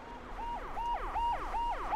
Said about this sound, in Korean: 그때였다. 건물 앞에서 순찰차의 사이렌 소리가 울렸다.